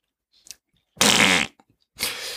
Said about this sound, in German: Egal, Furz, Furzgeräusche sind lustig.